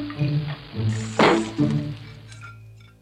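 Water sloshes and splashes as dishes are washed, coming in a few uneven surges with one brighter, sharper splash midway, then tapering off. No one speaks.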